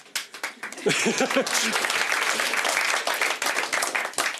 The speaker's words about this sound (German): ich freue mich wirklich, heute hier zu sein. Danke noch einmal für den Applaus.